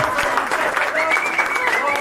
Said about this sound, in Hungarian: Hihetetlen nagy a hangulat. Nem annyira lényeg ez a taps. Nem annyira lényeg? Jó van ez.